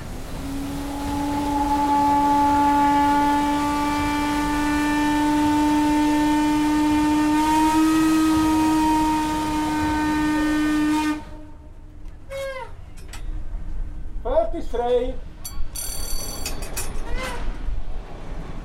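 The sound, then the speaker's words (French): A lake steamboat whistle, sounded by pulling a cord with handles aboard the Gotthard Panorama Express boat, blasts loudly and steadily for about eleven seconds, a rich harmonic tone, then cuts off, leaving voices chatting over faint background hiss. “Il y a une corne, il y a une trompe pour, annoncer le, pour annoncer le bateau ah, vous pouvez le faire maintenant carrément.”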